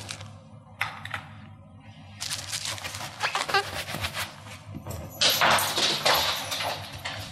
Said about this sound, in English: Can you hear the dog yeah. skittering across the floor?